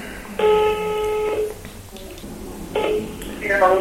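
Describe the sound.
A telephone call to a doctor rings on the line: a steady electronic ring tone lasts about a second, pauses, then starts again, with faint voices and low background noise around it.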